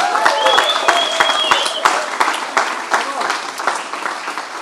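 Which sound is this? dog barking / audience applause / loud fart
audience applause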